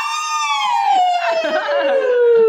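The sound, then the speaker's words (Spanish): A loud, continuous screech of fingernails dragged across a green chalkboard, a shrill piercing squeal that slowly drops in pitch over a couple of seconds, with some scratchy grating noise in the middle. “Mis educandos escuchen. Y pongo así las uñas en...”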